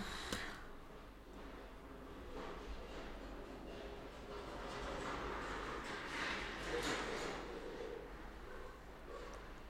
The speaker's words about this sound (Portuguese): acabou de passar um caminhão aqui.